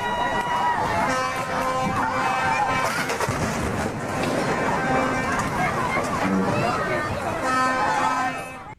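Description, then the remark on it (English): A duck boat carrying a group of old people crashes into a pier: a loud, chaotic burst of impact noise around a crowd's shouting and babble, with sustained horn-like tones running through the whole commotion. “That is actually the sound of a duck boat crashing into a pier with a bunch of old people on it.”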